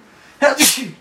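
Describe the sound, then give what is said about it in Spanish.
A single sneeze, starting with a sharp inhaled burst and then a loud, bright, noisy exhale that trails off into a brief voiced tail. “Salud. Ah, gracias.”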